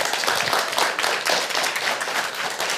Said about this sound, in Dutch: Mag ik een warm applaus?